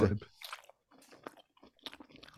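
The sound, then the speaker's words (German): Close-up wet smacking and chewing of hot food right at the microphone, a few irregular bursts of mouth noise with short pauses between them. “Liebe Hörende, freut euch auf Schmatzgeräusch.”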